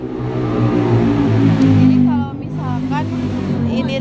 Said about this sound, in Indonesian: Benar suara motor lewat.